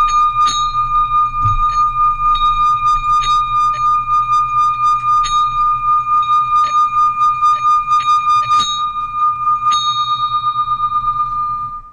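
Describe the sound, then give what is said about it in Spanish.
A small bell, rung in a spiritual ritual to drive away witchcraft and evil, rings over and over in a steady, fairly quick rhythm, its bright, high metallic tone sustaining and overlapping between strikes. Loud and alone, with no voices. “Invoco la llama violeta para que si en este momento hay algún demonio atormentando, a alguna persona con esta campana que he liberado aquí y ahora.”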